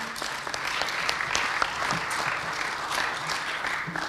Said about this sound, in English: So let's give them a big hand this morning.